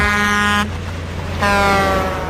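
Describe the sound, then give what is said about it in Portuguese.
Two loud, brassy blasts from a truck air horn, the first about half a second long, then a short pause before a second longer blast, with steady engine rumble underneath. “Até a buzina.”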